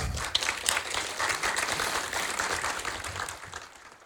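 A crowd applauds steadily for about four seconds at a breakfast event, welcoming a woman invited to the front: a dense crackle of many hands clapping at once that holds level before tapering slightly at the end.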